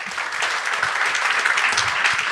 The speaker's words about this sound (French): Applaudissez, Charles Séguin.